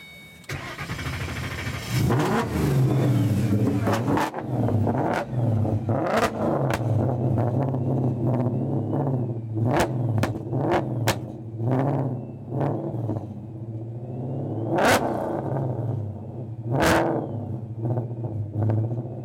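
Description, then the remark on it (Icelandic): A 2005 Ford Mustang with a 2013 engine, a supercharger and twin exhausts rumbles loudly, its deep steady idle broken by a series of sharp, quick revs and pops spaced irregularly throughout, with no talking. “Sko þessi er 2005 en það er 2013 mótorjón þetta er svolítið mix”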